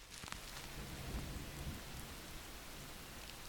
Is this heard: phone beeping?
no